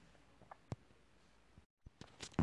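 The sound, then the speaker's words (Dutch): Quiet sipping of water: soft mouth clicks and a faint gulp, a brief hush, then a few louder knocks as a glass is handled near the end. Nobody speaks. “Eh, wacht, ik drink heel even een slokje water hoor.”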